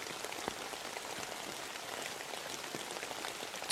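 Steady rain falls continuously late at night, heard from home, a dense patter of drops with small crisp taps scattered throughout, even in loudness with no voices.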